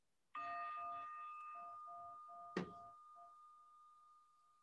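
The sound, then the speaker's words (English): A meditation chime is struck once and rings out with a clear, sustained tone that slowly fades over several seconds, with a brief soft knock partway through the resonance. “As we listen to the chime, let us remember our connection to each other and the world around us.”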